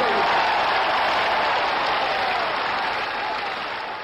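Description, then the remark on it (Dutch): A crowd claps and cheers in a dense, steady wash of applause that holds for about four seconds before beginning to fade slightly at the end. “En dan, eh, moest je daarom juichen?”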